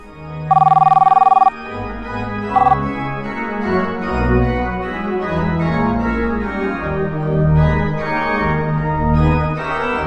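telephone ringing

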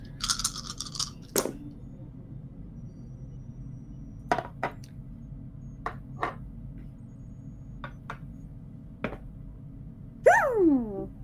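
four dice being rolled

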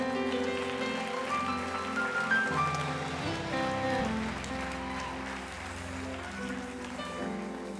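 audience clapping hands

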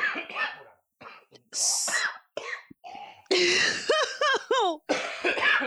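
throat clearing and coughing

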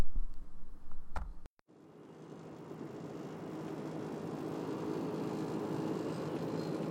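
car driving on highway

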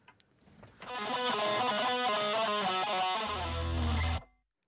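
song played on radio

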